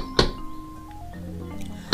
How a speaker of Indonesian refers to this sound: Dan pada suatu hari, ada tiga orang pemuda yang datang mengunjungi Nabi Ibrahim dan Siti Sarah. Mereka mengetuk pintunya.